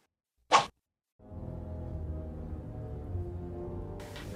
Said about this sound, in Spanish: Al fondo estamos escuchando el inicio de la obra El pájaro de fuego de Igor Stravinsky, una obra que tocó la Orquesta Sinfónica de la Universidad de Guanajuato con el maestro Castillo en el auditorio del Estado de Guanajuato con títeres monumentales.